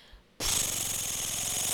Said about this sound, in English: Page turn noise.